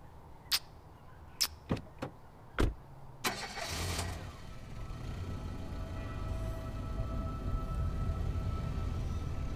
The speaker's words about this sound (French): la voiture s'éloigne pendant qu'ils me font des grands signes de main.